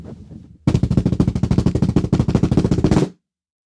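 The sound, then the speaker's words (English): A loud, rapid drum roll of tightly spaced, sharp hits runs steadily for about two and a half seconds, then stops abruptly; a faint low rumble comes just before it. “Let me adjust my microphone for the drum roll.”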